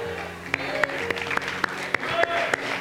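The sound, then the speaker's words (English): A few scattered, light handclaps from a small audience, spaced unevenly and fairly soft, like polite golf claps, over a low murmuring background. “Y'all giving me golf claps on that one.”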